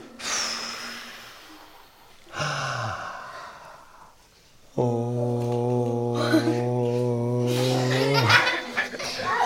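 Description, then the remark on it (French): Children empty and fill their lungs with breathy exhales and sharp intakes of air, then hold a long, steady "oh" vowel for several seconds in a contest to make the longest sound, loud, before it cuts off abruptly. “Le fond de la chose, c'est donc euh, qu'ils euh, prennent une grande respiration, qu'ils prennent leur souffle et que face à face, ils essayent de produire euh, le son le plus long. Là, c'était avec un O”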